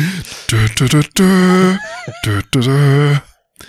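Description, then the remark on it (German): A voice imitates loud, heavy breathing as the character Rollator Jones, in several drawn-out, moaning bursts, forceful, with short gasps between them and no other sounds. “Ja, Plötzlich wird lautes Atmen hörbar.”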